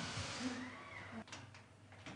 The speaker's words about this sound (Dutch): die raam daarboven, zou je die dicht kunnen doen, Merle, als je op een stoel gaat staan?